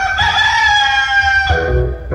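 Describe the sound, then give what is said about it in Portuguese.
Dejaci's rooster crows once in the morning, loud, a long strained cock-a-doodle-doo that holds steady and then cuts off, followed by a moment of low background noise. “E mal o galo do Dejaci cantou, Tizio já tava em pé.”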